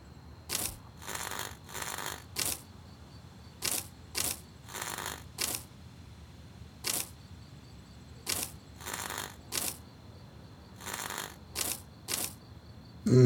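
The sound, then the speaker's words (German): Sharp knocks alternate with short bursts of rasping scratching, arriving in small irregular clusters that repeat several times across an otherwise quiet stretch, with no one speaking. “Das klingt fast wie ein, ein Klopfen und Kratzen.”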